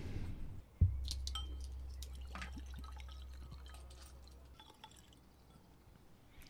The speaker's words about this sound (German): Dann wollen wir das mal in unsere Tasting-Gläser gleich einkippen.